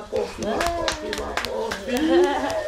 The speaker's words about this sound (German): Der Kleinste, noch nicht zwei Jahre alt, singt und bekommt dafür Applaus.